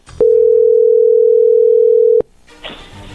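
A steady, loud telephone tone as a call is being placed holds at one pitch for about two seconds, then cuts off abruptly into quiet line noise with a faint hiss.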